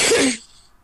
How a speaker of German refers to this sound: Gesundheit.